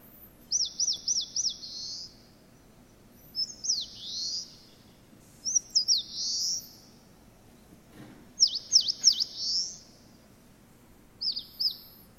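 An Eastern crowned warbler sings five bright, buzzy phrases, each a quick run of sharp notes ending in a slurred flourish, spaced a couple of seconds apart over a faint low background hum.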